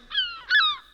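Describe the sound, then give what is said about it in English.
A voice imitates the speaker's own phone going off with incoming group text replies, two short, nasal, tonal bursts in quick succession, fairly loud, with no other talking. “that's my phone ring.”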